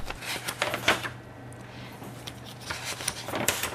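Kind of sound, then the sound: household object, leafing through paper documents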